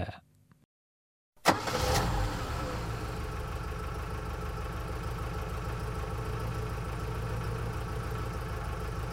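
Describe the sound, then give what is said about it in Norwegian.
After a brief silence, a car engine roars in with a sharp burst, then settles into a steady, loud idle that rumbles on without any talking, as the car arrives at a car repair workshop. “Gangsteren som som gang på gang ødelegger bilen. Han ankommer bilverkstedet”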